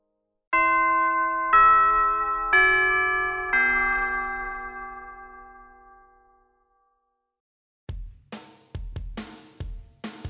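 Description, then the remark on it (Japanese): A clear four-note chime rings out in slow succession, each tone ringing and fading into a long decay, followed after a pause by a few short bursts of noise. “ということで、チャイムも鳴りましたので、えー、そろそろ活動のね、まとめをしていきたいかと思います。”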